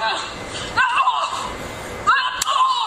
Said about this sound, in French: On échange des coups d'avant-bras entre les deux femmes.